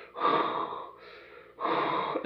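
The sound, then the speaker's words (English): A voice imitates the breathing of a mechanical respirator mask like Darth Vader's, making three raspy, hissing breaths, a long drawn inhale-exhale pattern with brief pauses between, no talking. “clang, just like Vader, and he has a breathing mask, mm-hmm. and he, it makes the exact same noise that”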